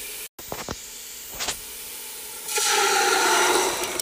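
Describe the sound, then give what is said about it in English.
A few soft clicks and clatters, then tomatoes are added to a hot pan of sautéing garlic for a sauce and a loud, steady sizzling hiss erupts and keeps going to the end. No one speaks. “There go the tomatoes.”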